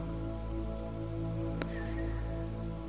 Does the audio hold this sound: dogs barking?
no